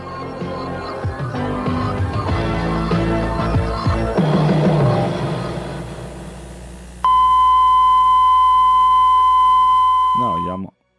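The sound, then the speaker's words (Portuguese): The Brazilian TV station SBT's off-air tone at night sign-off: after several seconds of busy programme audio, a loud, steady, high-pitched beep holds unbroken for about three and a half seconds, then cuts off with a brief falling wobble. “Porque você tinha aquele negocinho barulho. coloridinho que ficava, meu.”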